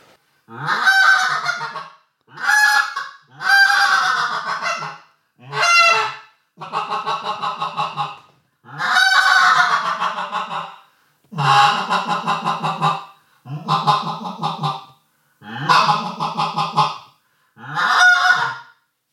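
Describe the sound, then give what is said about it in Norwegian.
A goose call whistle blows about eleven loud, reedy honks in an uneven series, each a short harsh burst separated by brief pauses, closely mimicking a greylag goose with no voices present. “Når du lukker med grovhusfløyta, så består det av to lyder. Du har den høye en, som er den Og så har du den lave en,”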